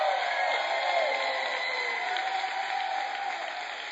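A large church crowd stands and applauds steadily to congratulate the new senior pastor of Life Church in California, a dense, sustained wash of clapping with faint whoops and cheers mixed in, holding at the same loud level throughout with no speech.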